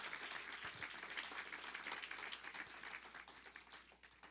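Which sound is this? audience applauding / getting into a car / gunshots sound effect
audience applauding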